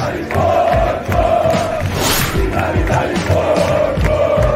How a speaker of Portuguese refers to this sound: Fez o berro da arquibancada ficar ainda maior no Uruguai, algo que parecia impossível.